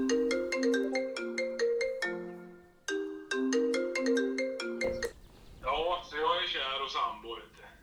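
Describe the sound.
A bright, melodic ringing tune of an outgoing phone call plays through twice, clear, before it cuts off and a voice answers and starts talking.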